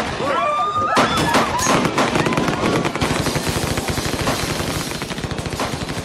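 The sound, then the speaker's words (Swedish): Rapid bursts of gunfire crackle almost continuously, with sharp repeated shots and a sustained chatter of automatic fire, alongside whistling tones and faint shouting voices, in a film scene where people on a bus are shot dead. “och eh, hur personerna blir ihjälskjutna, hon försöker rädda en av eh, döttrarna.”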